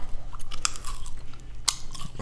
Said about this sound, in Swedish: Då har du kört godis. Jo. Nu är det smaskande i podden.